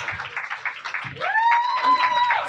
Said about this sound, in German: Ja, komm, man klatscht, bis die Leute sitzen.